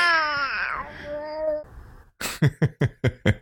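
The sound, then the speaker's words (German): A baby boy lets out a long, drawn-out wavering coo, played as an intro. After a short pause he gives a quick run of about six rhythmic, breathy giggles. Clear, with no adult speech. “Warum habe ich denn jetzt ein Baby als Intro eingespielt?”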